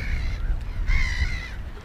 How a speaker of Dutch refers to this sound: honderden duizenden vogels.